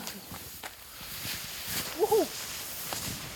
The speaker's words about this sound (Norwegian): Dette er lyden av ski over Silkeføre i åpen skog.